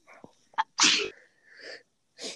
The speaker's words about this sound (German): Oh, ich muss niesen.